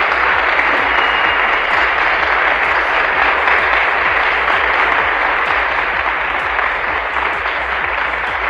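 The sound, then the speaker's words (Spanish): A crowd applauds steadily after poems about mothers are recited, for about eight seconds, a dense, loud wash of many hands clapping at an even level with no voices rising above it. “Aplausos, por favor.”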